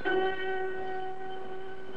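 A train horn blares in one long, steady chord, loud, holding for about two seconds over a low rumble of rail noise. No voices are heard.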